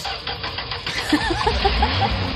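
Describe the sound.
A person, asked to imitate a car engine, does so with their voice, making a steady low rumble with rapid sputtering pulses and a few rising revving tones, lasting a couple of seconds with no words.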